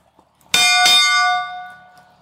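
A hand bell rung to signal ten minutes until mealtime rings twice in quick succession, bright and metallic with high shimmering overtones, then its tone rings on and slowly fades out. No one speaks over it.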